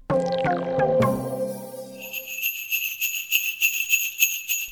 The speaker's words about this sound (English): Can you hear those bells? That's a reminder that we've only got 10 days to go to bring some joy to families in need this Christmas.